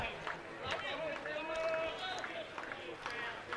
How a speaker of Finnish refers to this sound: Muutama väsynyt taputus kuuluu Sotkamon pesäpallostadionilla, kun ihmiset odottelevat, että milloin tämä peli oikein lähtee kunnolla juoksujen muodossa liikkeelle.